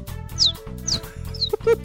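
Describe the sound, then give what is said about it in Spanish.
A voice imitates a baby chick with three or four short, shrill, downward-sliding peeps in quick succession, fairly loud, over a low rumbling background. “Pero puedo imitar a un pollito, mira, hace así.”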